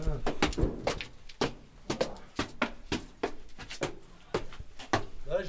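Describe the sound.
A heavy cellar door being pushed shut, with a rapid series of wooden knocks and clunks as it rattles and latches, and a voice murmuring faintly in the background.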